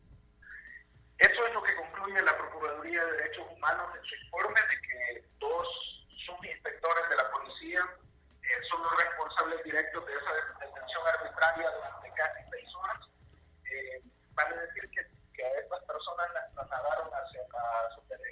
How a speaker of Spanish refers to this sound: te, te estás alejando del teléfono o se te está cayendo el micrófono? Eh, creo que es la señal.